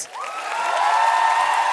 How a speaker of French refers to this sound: Est-ce qu'on peut applaudir bien fort